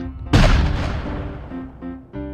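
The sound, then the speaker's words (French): A single cannon shot, fired at the Grosse-Île quarantine station to force ships to stop, booms with a deep rumble rolling away over a couple of seconds while a low sustained musical tone hums underneath. “On doit même à l'occasion tirer des coups de canon pour forcer les navires un peu trop pressés de s'arrêter à Grosse-Île.”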